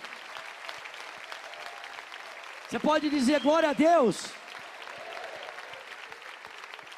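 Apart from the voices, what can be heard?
church audience applauding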